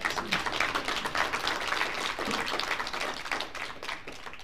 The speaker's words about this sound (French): En tout cas, on peut déjà applaudir notre invité.